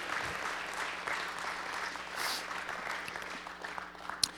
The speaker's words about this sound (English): And uh, you can clap.